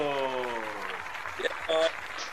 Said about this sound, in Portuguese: Salva de palmas, meu querido.